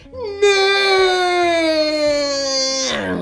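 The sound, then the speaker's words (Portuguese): A voice imitates rusty wheel nuts on an old tyre squealing as they are loosened during a tyre change in the rain: one long, strained, high-pitched wail held for about three seconds, loud and steady, slowly sliding down in pitch before cutting off. “Atenção, o pneu já era tão velho que que as porcas berravam quando eu as desapertava.”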